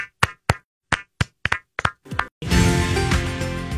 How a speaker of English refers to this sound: We'll clap as we go to break on My Talk.